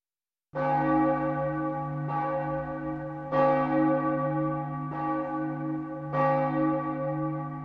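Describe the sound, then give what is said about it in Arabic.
A church bell tolls five times at a slow, steady pace, each strike ringing out loudly with a long, rich hum that carries into the next. No voices are present. “كانت آنا في مكان قريب من الكنيسة فأسرعت إلى برج الجرس كي تتم عدد الدقات المطلوب ومنذ ذلك اليوم ظلت آنا تدق أجراس الكنيسة بدلا من العامل العجوز”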